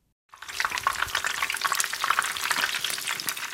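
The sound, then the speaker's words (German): French fries sizzling in a deep fryer: a steady, dense crackle and hiss of bubbling hot oil, fairly loud, starting abruptly and continuing without pause. “Es ist jenes porenversiegelnde, tranig süße Aroma einer fettdampfenden Fritteuse, in der Pommes brutzeln.”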